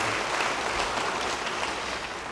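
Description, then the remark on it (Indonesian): A church audience claps for Jesus Christ, a dense, continuous wash of many hands at even loudness, tapering slightly at the end with no voices over it. “Beri tepuk tangan yang meriah bagi dia.”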